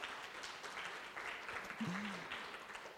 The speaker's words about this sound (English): So let's give them a round of applause for that. They did a great job.